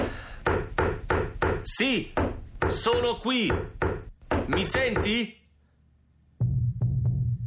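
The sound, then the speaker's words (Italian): Sharp knocking on a wall by a person communicating through it, several quick raps at the start, then more scattered knocks mixed in with a person talking, and a couple of final knocks over a low rumble after a short silence. “Picchiando sul muro, deve avermi sentito sbattere la schiena contro il muro.”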